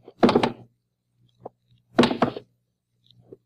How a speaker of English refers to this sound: By this time, the house was so quiet it was noisy. First thing I did was take off the shoes and drop them one by one on the floor.